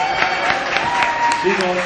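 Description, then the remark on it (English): An audience at a morning church worship service claps in a steady patter of sharp hand claps lasting about two seconds, with a voice talking over the applause, welcoming the speaker's wife. “Yeah, she can give her a clap.”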